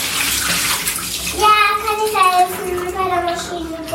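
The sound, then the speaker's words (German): Water is poured off washed apples in a steady, splashing stream, starting with a broad rush and settling into a gurgling, bubbling flow, with faint voices in the background. “Jetzt gießen wir das Wasser ab und dann bauen wir die Maschine auf.”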